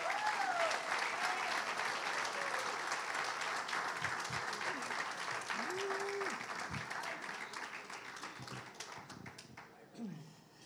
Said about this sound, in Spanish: recibamos con un fuerte aplauso al pastor Freddy Zacarías